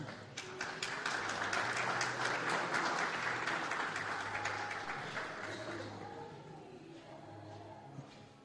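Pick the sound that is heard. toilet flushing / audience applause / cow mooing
audience applause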